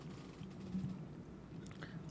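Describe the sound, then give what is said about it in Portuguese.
Soft chewing sounds with wet, squishy mouth noises, steady and continuous over a couple of seconds, fairly quiet with no talking. “Mastiga de direito aí.”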